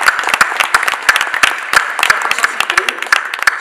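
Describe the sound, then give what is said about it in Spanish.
An audience breaks into applause for the production team, a dense patter of many hands clapping steadily and fairly loud throughout, with individual claps standing out in the wash of sound. “o sea, un fuerte aplauso a todos los chicos que están a de ¿verdad?”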